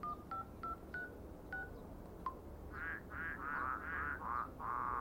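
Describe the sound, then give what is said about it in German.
Six short telephone keypad tones beep at an uneven pace, followed by a run of warbling, croak-like electronic chirps over a low background hum; no one speaks. “Ruf mich an.”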